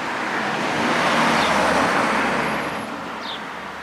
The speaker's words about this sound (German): Stopp, Stopp, halt, Bruno, halt, bleib stehen, ein Auto kommt.